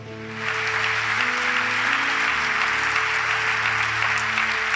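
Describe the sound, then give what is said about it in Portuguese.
An audience breaks into steady applause, the dense clapping swelling in after a brief moment and holding at a strong, even level, with a low sustained musical tone humming underneath. “Cheguei em casa, aplaudir, pode aplaudir.”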